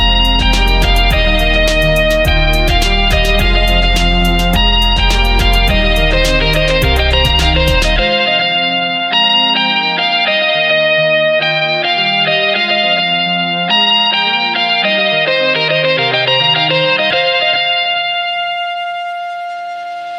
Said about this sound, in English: for those two awesome tracks right there. Keep making that stuff happen, my dude. Nothing but pure magic all over the place.